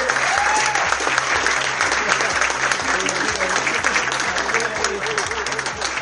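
A large audience claps loudly and steadily, sustained applause filling the room for several seconds with a few faint cheers mixed in beneath a low rhythmic background thump.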